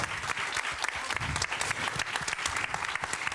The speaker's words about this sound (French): Je pense que vous pouvez l'applaudir.